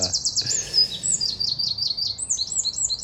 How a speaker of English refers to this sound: And, but it's just so peaceful here can hear the birds.